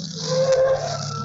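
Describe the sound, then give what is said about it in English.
An old car's engine rumbles low while tires let out a brief, thin squeal as it brakes and pulls over to the curb for a police officer, moderately loud, with no one speaking. “Hey, you! Pull over to the curb!”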